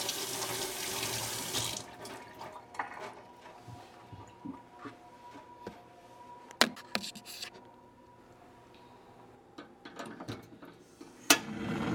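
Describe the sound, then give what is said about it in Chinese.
A faucet gushes in a loud, steady hiss for about two seconds, then gives way to quieter splashing, dripping and scattered clicks and clatters as hands are washed under the tap after preparing ingredients for a golden salted-egg squid dish. “现在我们食材已经都处理的差不多了，好，那我们就可以来把手洗一洗，直接来做我们的金沙中卷。”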